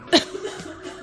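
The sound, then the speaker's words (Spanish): A woman gives a single short, sharp cough, followed by quiet breathy sounds and a faint background hum. “Voy a toser.”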